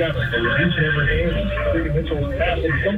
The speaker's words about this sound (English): This is the sound of high school basketball on analog, crappy old AM radio.